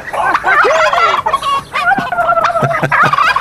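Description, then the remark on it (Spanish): A busy henhouse of poultry clucking and chattering, several birds calling over one another in quick, uneven bursts, fairly loud, with a few sharper squawks and a gobbling note mixed in. “ahí se oye hasta un, un, gallinero, se oye también ahí.”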